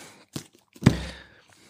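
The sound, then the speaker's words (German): Two dull thuds of books being set down on a surface beside a person, a lighter knock followed by a heavier, fuller thump with a brief rustle as it settles. No talking. “ich habe sie wirklich neben mir liegen, drum macht sie so bumm, wenn ich sie hinlege.”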